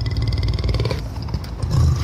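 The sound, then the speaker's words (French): A loud, deep, rumbling lion roar fills the whole moment, rough and growling with a throaty rasp that swells again toward the end. No voices are heard. “C'était un lion, ça? Ouais.”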